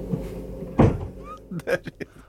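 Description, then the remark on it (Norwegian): A single heavy, loud thud of a door slamming shut, followed by a few brief voices or mouth sounds trailing after it. “small dør igjen.”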